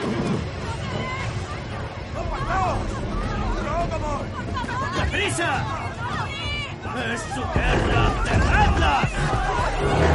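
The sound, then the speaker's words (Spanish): A dense crowd thronging on a bridge murmurs and shouts over one another in a continuous, loud babble, with footsteps and scuffling underneath and a few voices rising above the din. “Una muchedumbre se apelotona en un puente.”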